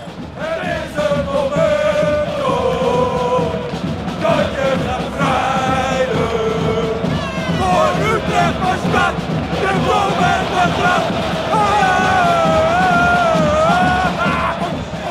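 A big football crowd roars and chants together after a goal for Utrecht, loud and sustained for the whole stretch, with many voices shouting and singing.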